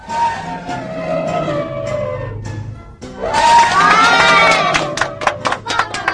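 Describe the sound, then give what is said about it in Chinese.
A crowd of animals cheers and applauds the elephant after it lifts a thick tree trunk in a weightlifting contest, a steady wash of voices that swells louder about halfway through, with sharp bursts of clapping rising toward the end. “大家都为大象鼓掌。”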